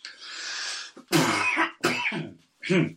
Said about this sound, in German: Entschuldige bitte. Wir brauchen, wir brauchen, wie heißt das hier? Wir brauchen eine Räuspertaste. Eine Räuspertaste.